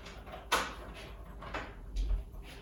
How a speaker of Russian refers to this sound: Да, правильно. Открой-ка дверь.